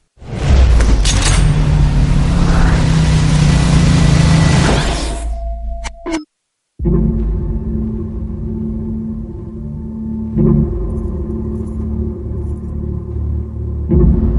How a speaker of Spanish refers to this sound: Pero bueno, eh, yo creo que vamos a escuchar el tráiler y ya empezamos un poquito a hablar de ella.